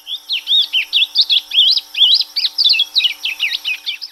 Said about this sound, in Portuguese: Todos eles com algumas características em comum. São aves pequenas, gostam de comer sementes de capim, cantam muito e muito bonito e são criados em cativeiro.